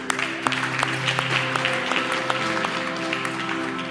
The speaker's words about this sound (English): Man, let me get a clap from somebody who's thankful, please.